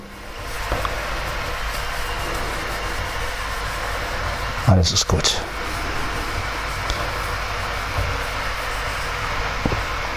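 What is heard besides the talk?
electric kettle heating water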